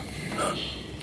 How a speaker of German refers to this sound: Oh, Gesundheit